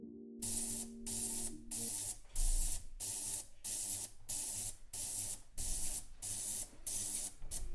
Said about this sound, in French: Quel est ce bruit étrange Ce sont des ultrasons. C'est une machine à laver le bijou qui nous sert à enlever toutes les petites saletés qui restent du polissage et à rendre le métal complètement vierge de toute, de toute impureté.